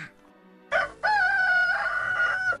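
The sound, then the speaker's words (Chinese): A single loud rooster crow heralding daybreak, a short opening note followed by a long, sustained, slightly wavering cock-a-doodle-doo lasting nearly two seconds, with no talking. “公鸡报晓，新的一天又开始了。”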